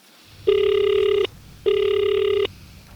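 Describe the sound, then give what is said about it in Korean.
Two long electronic ringback tones on an outgoing phone call to place an order, each lasting under a second with a short pause between, steady and clear over a faint low background hum. “그럼 내가 주문 전화 한번 해볼게요.”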